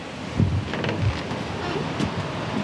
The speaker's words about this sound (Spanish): Aquí rompen todas las olas, aquí, bueno, una maravilla.